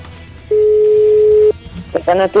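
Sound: phone call ringing tone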